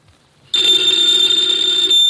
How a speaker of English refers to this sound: Ladies and gentlemen, the ringing of that phone bell brings you mystery, adventure.